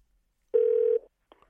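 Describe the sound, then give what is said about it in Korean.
A loud, steady telephone tone as a call is placed from Park Myung-soo's Radio Show, holding one pitch for about half a second, then cutting off, followed by a faint short click. No one speaks. “전화를 한번 걸어볼 수 있을까요?”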